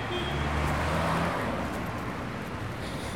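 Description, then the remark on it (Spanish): A car passes on a street, its engine rumble and tire noise forming a steady, fairly loud wash that eases off slightly toward the end. “Pero pasando este coche, gracias. Pasando este coche nos podemos...”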